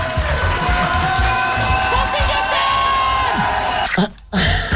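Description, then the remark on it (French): A crowd claps and cheers loudly and steadily, with whoops and shouts rising over dense, continuous applause that briefly drops out near the end before resuming. “Vous pouvez m'applaudir quand même.”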